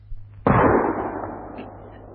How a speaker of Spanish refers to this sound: me parece que alguien nos busca, porque hace como dos horas que llaman a la puerta. Vamos a abrir, porque ese ariete amenaza con derribar nuestro humilde pórtico.